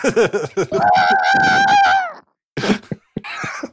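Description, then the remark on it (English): A person vocally imitates car tires peeling out: a loud, sustained squealing tone held for over a second, followed after a short pause by a few brief, noisy bursts. “Those were that was a peeling out.”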